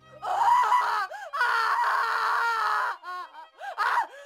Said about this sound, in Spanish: … grita y se retuerce sobre su silla.